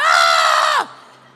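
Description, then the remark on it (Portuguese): A single loud, high-pitched scream sustained for under a second, then dropping off sharply into quiet room tone. A voice imitating a frightened shriek, with no talking. “eles estão berrando, cara. A palavra fala aqui que eles estão gritando de medo.”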